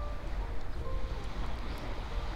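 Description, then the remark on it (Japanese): A steady, unbroken rush of ocean waves, watched in the morning, with a deep low rumble under a softer hiss and some wind noise, and no voices. “えっ、とそんなことを今朝は、えー、海を見ながら思ってます”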